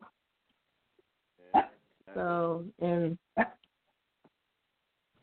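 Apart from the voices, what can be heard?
dog barking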